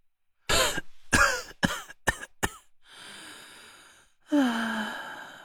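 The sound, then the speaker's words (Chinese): A burst of five harsh coughs in quick succession, followed by a raspy breath and then a long, heavy sigh that drops in pitch as it fades. No one speaks. “夏风咳嗽了几声，重重的叹了口气。”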